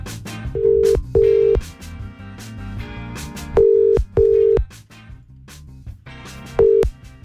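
A telephone ringback tone repeats in short double pulses, three rings over about seven seconds, clear and fairly loud over faint rhythmic music with sharp percussive hits in the background, as a radio morning show calls a listener on air.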